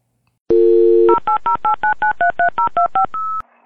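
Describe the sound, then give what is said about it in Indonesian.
A steady dial tone gives way to a quick run of about eleven evenly spaced touch-tone beeps as a telephone number is dialed, ending on a brief held tone; loud, no voices. “Penasaran? Yuk kita telepon dia sekarang.”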